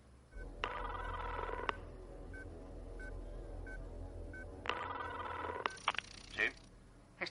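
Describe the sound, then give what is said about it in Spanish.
A telephone rings twice in long electronic bursts with a steady pulsing tone, separated by a pause, over a low background hum; a brief clatter follows the second ring. “Y fue una saga que, bueno, pues que comenzaba con una, con una simple llamada de teléfono.”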